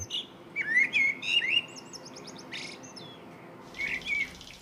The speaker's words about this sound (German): Wir hören jetzt äh, die Vögel des Hochschwarzwaldes und alle 20 Minuten auch den Kuckuck. Toilettengeräusche sind ja nicht immer angenehm. Und äh, man konzentriert sich dann auch auf was halt anderes. Äh, man wird etwas positiv abgelenkt.